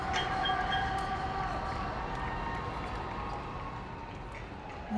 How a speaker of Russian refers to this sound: Я не знаю, что происходит, но который раз подряд я слышу с своего балкона, как люди кричат, бьют в какие-то колотушки, я не знаю, что это.